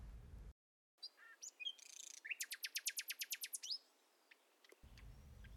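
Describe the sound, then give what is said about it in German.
A single bird sings, mixing short chirps and whistles with a fast, evenly spaced trill of about a dozen bright notes. No one speaks. “Schauen bestaunt die Vögel, groß und klein, wie sie so beschwingt durch die Lüfte schweben.”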